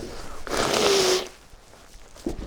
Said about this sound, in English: Isn't that nice? Isn't that just what you come here to listen to? Me complaining and blowing my nose.